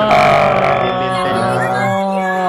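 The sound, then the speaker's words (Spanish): A loud, sustained yell of an audience shouting at full strength, as loudly as possible while a phone is raised to record a video, held steadily for a couple of seconds with no pauses, raw, then trailing slightly at the end. “Él lo va a alzar el teléfono y ustedes tienen que gritar lo más fuerte posible.”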